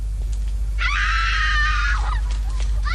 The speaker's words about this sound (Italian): Che ne dici di un po' di grida? Come no, certo. Aggiungi un po' di grida, per favore.